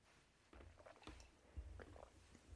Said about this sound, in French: Attendez, je bois une petite gorgée, j'arrive.